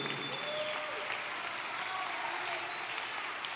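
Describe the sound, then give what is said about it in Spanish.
An audience at a Spanish-language church service breaks into steady, sustained applause for God, a dense wash of clapping hands that holds at an even level throughout, with faint voices and a brief whistle-like tone mixed in. “Dámele un aplauso fuerte a Dios, te lo estoy diciendo.”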